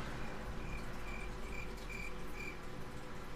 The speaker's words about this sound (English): I heard some crickets.